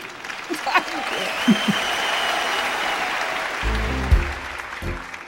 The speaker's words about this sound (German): Ja, Sie klatschen zurecht. Ja, ihr klatscht zurecht. Ja, ja, das ist ein Applaus wert, aber vielleicht auch noch einen kleinen aufmunternden Applaus